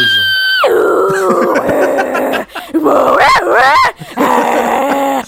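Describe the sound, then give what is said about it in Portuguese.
A voice mimics a dial-up modem connecting to the internet, with high squealing tones, a sudden drop into buzzy warbling, and screechy rising chirps, loud for a few seconds with brief pauses. “E aquele barulho de conectar a internet?”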